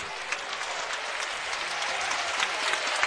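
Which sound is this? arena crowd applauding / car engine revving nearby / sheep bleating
arena crowd applauding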